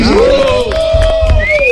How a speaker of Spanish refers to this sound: aplaude el auditorio.